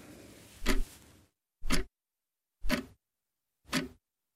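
A clock ticks four times in steady one-second beats, each tick a sharp, fairly loud click with silence between, and no voices.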